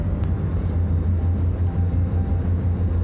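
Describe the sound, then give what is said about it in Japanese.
Steady low rumble of a car engine and road noise, heard as if from inside a car moving at 30 km/h behind a very slow truck, with traffic backed up, continuous and even throughout with no voices. “普通に移動してたら激遅トラックがいて今3 0キロで走ってます自転車かよ”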